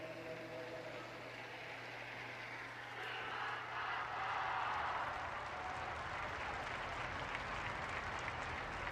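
A large crowd in St. Peter's Square applauds Pope Francis as he blesses them from the window of the Apostolic Palace after the Angelus, the clapping a dense, continuous wash that swells louder midway and holds, with no clear voices standing out.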